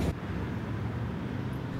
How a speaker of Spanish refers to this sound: Hay bastante tráfico, ah.